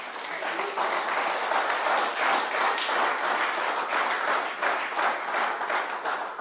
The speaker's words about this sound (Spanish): Dele palmas al Señor.